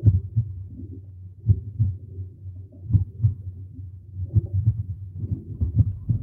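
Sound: heartbeat as heard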